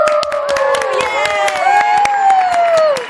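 An audience applauds steadily for about three seconds in congratulation on a music video passing one million views, sharp claps running throughout, while a crowd of high-pitched voices cheers and shrieks over them, loud and sustained.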